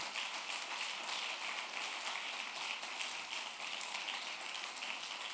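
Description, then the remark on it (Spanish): Steady crowd applause given to God on Good Friday: a dense, hissing wash of many hands clapping at once, holding an even loudness for several seconds with no voices over it. “Del otro fuerte aplauso al Dios poderoso en esta hora.”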